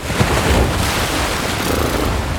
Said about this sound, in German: Auf einmal rauschte eine große Welle auf ihn zu und klatschte gegen seine Windschutzscheibe.